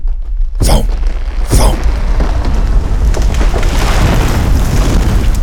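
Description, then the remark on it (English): A massive explosive boom bursts out as several huge drill ships surface through a city park, followed by another sharp blast, then a sustained roaring rumble of churning dirt, rock, trees and crumbling earth that continues loudly. “In an enormous geyser of dirt, rock, and trees, the park erupted as several massive drill ships surfaced.”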